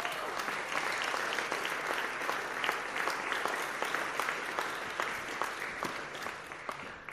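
Steady, warm audience applause welcoming a woman to the front, a dense wash of many hands clapping at a consistent level for several seconds before tapering slightly at the end, with no talking over it.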